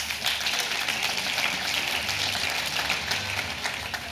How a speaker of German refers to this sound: Das ist total nett von euch, dass ihr vorher klatscht.